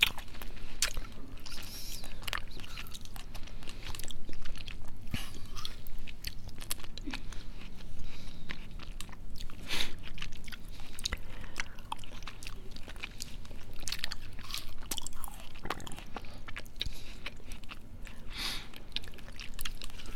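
Continuous chewing and biting, with crisp crunches and wet squishy mouth sounds repeating irregularly for about twenty seconds, steady and fairly quiet, with no talking.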